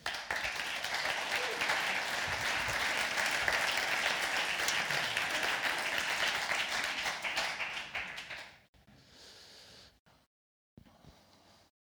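An audience breaks into sustained applause welcoming a young woman onto the stage to tell her story, dense steady clapping from many hands for about eight seconds before it thins out and fades into scattered quieter moments.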